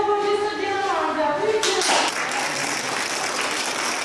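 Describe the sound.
A voice is heard briefly, then a group breaks into steady, dense applause that carries on to the end, loud, as patients who recovered from coronavirus are sent home from hospital, in Tunceli, Samsun, Ordu, Tokat, Hatay and Kilis.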